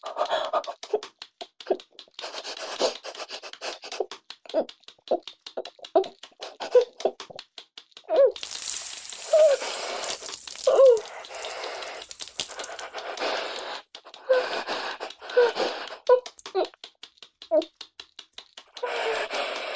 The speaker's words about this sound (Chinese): 哦，你听到很大的啪啪声，还有喷水声。啊，爸爸，你你千万不要误会，妈妈是实在太生气了，所以裹着鸡，哦，不是，是拿着鸡毛掸子在打桌子呢，所以啪啪的乱响。嗯，还不小心打翻了热水壶